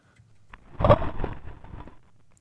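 A single dull, muffled thud from a comet landing, caught by the lander's sensors, lands abruptly and rumbles off over about a second, with a faint low hum before and after.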